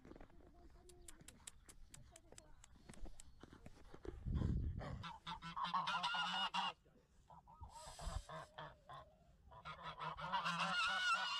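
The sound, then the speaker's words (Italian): Hens in a yard cluck and squawk loudly in a noisy, overlapping chorus, preceded by a series of sharp clicking taps and a brief low thump. “Dai, ora andiamo a le galline.”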